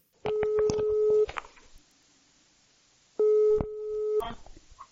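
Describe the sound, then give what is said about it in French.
An outgoing phone call's ringback tone: two steady, medium-pitched electronic rings about a second long, separated by roughly two seconds of near silence, clear with faint clicks underneath. “C'est parti, on l'appelle.”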